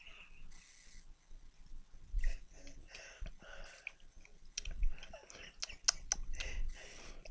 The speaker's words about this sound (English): Let me take a let me take a big swip on this. Swig on this, so you can hear me taking a gulp on this thing. Hang on.